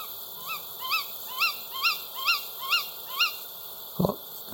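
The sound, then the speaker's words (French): A tawny owl gives a rapid series of about seven sharp, rising calls at an even pace, sounding distant and moderately faint, followed by a brief low thump near the end. “Donc ça, c'était la chouette-ulotte”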